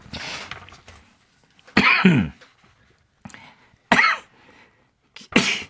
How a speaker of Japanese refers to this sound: ちょっと、もう咳ダメ。咳でダメ。